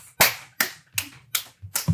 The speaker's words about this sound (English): Sorry, I just did so much clapping.